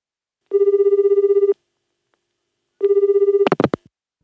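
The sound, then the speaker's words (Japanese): A phone line rings twice on the caller's end as a man calls the automated parcel-redelivery line of Kobato Unyu, each burst a buzzy, warbling tone about a second long with a pause between, followed by a brief clatter as the call connects. “宅配便の再配達自動受付に電話をしました”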